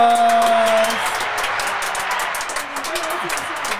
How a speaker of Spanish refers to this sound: Hola, hola. Los aplausos.